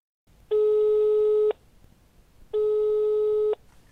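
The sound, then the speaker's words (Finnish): A telephone ringing tone from an outgoing call, made to inquire further about a matter, sounds twice as steady one-second electronic tones separated by a second of quiet line hiss, clear with no voices. “Minä otin sitten puhelinta käteen ja soitin Jaanalle asiasta lisää tiedustellakseni.”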